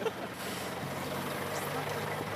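truck engine idling

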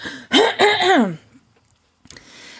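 throat clearing

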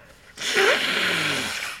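blowing nose

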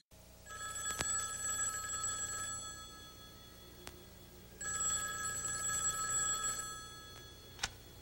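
telephone ringing

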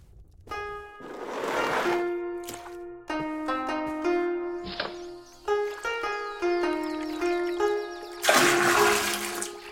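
water poured

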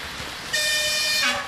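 train horn

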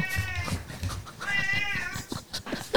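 cat meowing

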